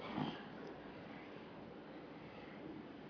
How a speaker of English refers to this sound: especially in this meditation because it's raining outside, and boy, is that the time where we all like to doze off. Creates a beautiful ambient white noise sound exactly like the setting on my iPhone I fall asleep to at night.